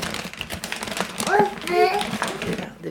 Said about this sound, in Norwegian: hører altså nå, er lyden av spørrende baby og spisende mor. Du måtte tygge.